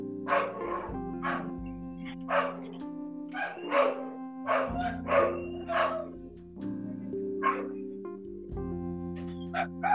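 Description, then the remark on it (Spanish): Dogs bark in a quick, irregular series of sharp yelps and woofs, loud, over a steady low droning tone that continues throughout. “Bueno, escucho unos perros, no sé.”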